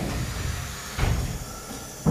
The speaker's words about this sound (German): So, dann werde ich mich mal in die Dusche begeben. Da wollen wir mal. Wir schließen die Tore, der Kabine,